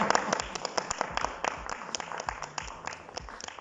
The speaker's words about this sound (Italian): Un applauso a Orietta.